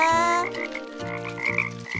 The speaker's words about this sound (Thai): นี่พวกเองข้าได้ยินเสียงกบร้องละเราตามหาเสียงนั้นกันเถอะ